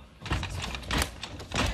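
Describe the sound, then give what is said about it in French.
An office door strains and creaks as it is forced, with three loud bursts of rattling and thudding at roughly even intervals over a noisy background. “Elle craque, elle craque.”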